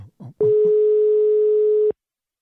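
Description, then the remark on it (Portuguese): A loud, steady telephone busy signal tone hums for about a second and a half, preceded by a couple of brief muffled voice sounds, then cuts off abruptly into silence. “Escuta aí, olha, tá falando.”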